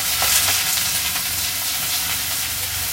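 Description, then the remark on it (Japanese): Vegetables sizzle loudly while being stir-fried in a pot for instant ramen, a steady bright hiss flecked with small crackles and pops that runs unbroken for the whole moment, with no one speaking. “インスタントラーメンを作っててフライパンで野菜を炒めようと思ってお鍋に入れちゃったんでねちょっとこれは時間がかかりそうですね”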